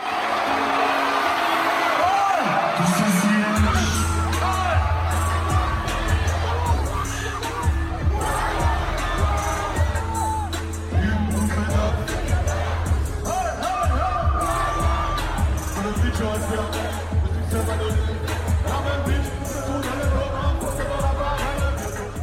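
A loud crowd cheers and shouts, then after a few seconds a heavy, pulsing bass-driven track kicks in, the audience's roar continuing over the music throughout a live concert.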